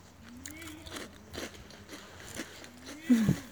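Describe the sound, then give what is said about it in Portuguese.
Crisp crunching and chewing of a Skinny cheese biscuit, with several sharp bites in an uneven rhythm over a quiet background and a louder crunch near the end. “Enquanto é isso, vocês ouvem um ASMR meu comendo um biscoito de skinny.”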